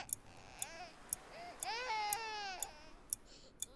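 A newborn baby's thin, wavering very first cry, at night, rises and stretches into a long wail, accompanied by a steady clock ticking at regular intervals throughout.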